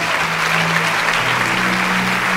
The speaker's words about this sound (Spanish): Ahí donde está, ¿por qué no le da un fuerte aplauso a Jesús?